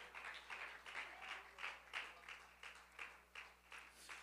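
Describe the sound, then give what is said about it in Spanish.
A church audience applauds steadily in praise of the Lord, the clapping settling into a loose rhythmic pulse. It sounds soft, with a faint low hum underneath and no talking. “Al Señor sea todos los aplausos y toda la alabanza de parte de su pueblo.”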